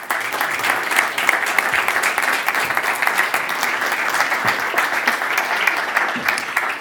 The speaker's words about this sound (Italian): Quindi noi questa sera ne parleremo con lei eh, in modo concreto, oserei dire, e non in modo retorico, ma direi invitiamola subito con un un grande applauso.